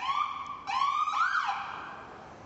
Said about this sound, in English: And uh, here comes an ambulance. I'm going to let the ambulance pass.